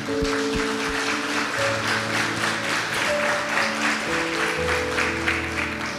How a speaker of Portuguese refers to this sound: Pode vir, não tenha vergonha, e nós queremos aplaudir você pela sua decisão.